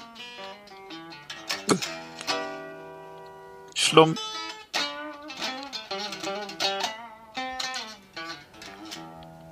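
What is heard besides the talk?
guitar being played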